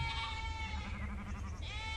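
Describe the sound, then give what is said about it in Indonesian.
A little sheep bleats in one long, wavering cry that trembles throughout, heard on its own with no talking. “Jangan bergerak, domba kecil.”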